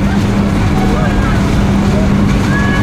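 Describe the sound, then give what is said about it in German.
A loud, steady airplane engine roar fills the whole clip, a deep droning hum under a broad rushing noise, constant in level without easing off. “Ihr Kopf ist vollkommen ausgefüllt vom Brausen der Maschine, das plötzlich viel lauter ist als eben noch.”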